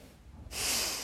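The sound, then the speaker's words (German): A single sneeze bursts out after a moment of near silence: a sudden, loud, breathy hiss of air that holds for about half a second, with no talking. “Oh, Gesundheit!”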